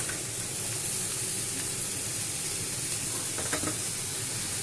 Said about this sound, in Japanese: 鶏肉を焼いてたところに野菜を導入することでですね若干の蒸し焼き効果もあるような形ですかね。